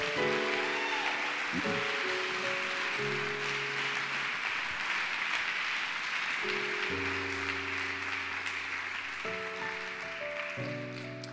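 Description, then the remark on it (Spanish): An audience claps loudly and steadily for about eleven seconds in applause for the King, while sustained keyboard chords shift underneath; nobody speaks. “Por favor, de nuevo ese aplauso bien fuerte al Rey.”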